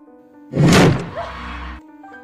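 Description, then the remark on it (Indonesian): A door slams shut with a heavy thump, followed by about a second of rumbling resonance that fades out, over a faint steady hum. “pintu langsung terbanting di hadapannya.”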